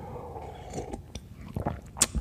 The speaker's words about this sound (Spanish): Y también no se me olvide, ah sí, otro sorbocito de café.